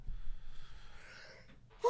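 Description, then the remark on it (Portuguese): A drawn-out breathy inhale builds for over a second, then breaks into a sudden loud sneeze burst at the very end, from a person with rhinitis. “Saúde ter Rinite é uma bosta, mano.”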